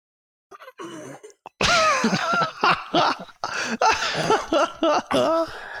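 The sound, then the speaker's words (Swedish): A brief rustle of movement, then a run of loud, strained groans and grunts as a person stands up from sitting in a chair, with no words spoken. “Jag kunde inte ens föreställa mig att jag någonsin kunde vara i en situation där det skulle låta när jag reste mig upp.”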